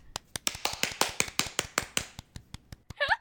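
A quick, steady run of about sixteen crisp hand claps, fairly loud and evenly paced, given in congratulation, ending with a brief vocal whoop or cheer.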